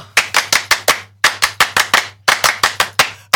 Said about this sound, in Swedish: Det är med stolthet som jag nu ber att få utbringa en fransk applåd för att välkomna Mr Musik och Romantik